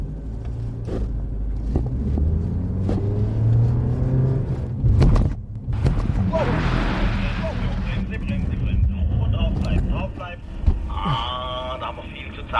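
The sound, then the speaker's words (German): A car rumbles steadily from inside the cabin during a driving safety training exercise simulating loss of control, then a loud burst of hissing tire noise hits midway, followed by high squealing tones as the vehicle slides and the driver countersteers, with indistinct voices underneath. “Also jetzt wird auf jeden Fall simuliert, dass ich äh, die Kontrolle über den Wagen verliere und gegensteuern soll und dann mal spüre, äh, ja, wie schwer das eigentlich ist dann.”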